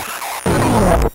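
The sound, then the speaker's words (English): A brief burst of harsh, crackling analog noise, loud and dense, from a sound library of old, decaying newsreels: audio breaking up through analog data loss and degradation, with a thinner hiss before it and an abrupt cutoff into silence. “I actually used the sound library sourced from old, decaying newsreels, so what you're hearing is the literal sound of analog data loss and degradation.”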